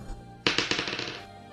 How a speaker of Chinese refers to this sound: 投骰子吧，投感知察觉的骰子。